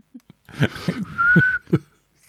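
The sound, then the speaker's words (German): A person with a beard whistles one short, steady note lasting about half a second, surrounded by a few soft breathy puffs and rustling bursts. “Kannst du mal pfeifen. Kommt das kommt überhaupt gar nicht durch durch deinen Bart.”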